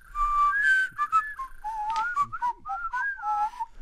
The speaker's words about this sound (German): Fröhlich pfeifend und abwechselnd singend schlenderten sie durch den Wald.